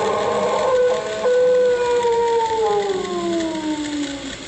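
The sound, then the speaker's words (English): A strange creature lets out one long, loud wailing howl that wavers and then slides steadily downward in pitch over several seconds, heard alone without any talking. “This is a portable tape recorder that thing howls or wails or screeches again, I'll get it on this tape.”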